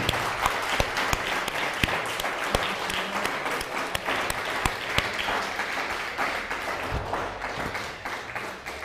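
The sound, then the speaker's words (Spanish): Loud, sustained applause from a crowd, dense overlapping claps with a few sharper individual claps standing out, holding steady for several seconds before easing slightly at the end. “Dele un fuerte aplauso pero bien fuerte.”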